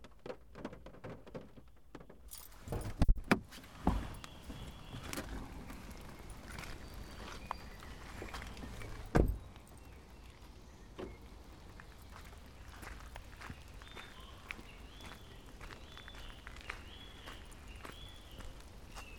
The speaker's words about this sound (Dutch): Over het grindpad en over het bruggetje loop ik de tuin in.